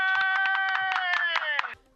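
Rhythmic applause, steady claps about five per second, loud and close over a sustained musical chord, stopping abruptly just before the end.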